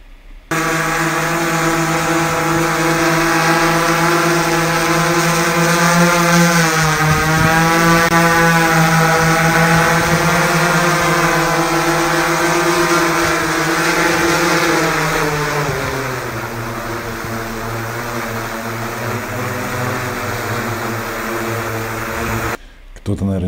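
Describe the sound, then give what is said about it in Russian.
A loud, continuous high-pitched engine whine of a combat drone with buzzing harmonics, pitch rising and falling as it revs, for over twenty seconds without talk. “наверняка скажут, ой, он такой громкий.”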